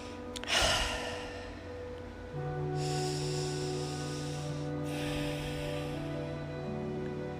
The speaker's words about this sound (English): So let's just either sit or stand in a quiet way and breathe three times gently.